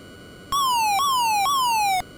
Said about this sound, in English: When our fuel gauge gets low, we're going to hear this warning indicator.